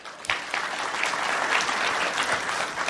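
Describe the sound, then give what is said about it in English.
An audience in Toronto breaks into steady applause, a dense wash of many hands clapping that starts abruptly and holds at an even, fairly loud level without voices standing out. “How many people think Yelp knows I'm in Toronto? Round of applause.”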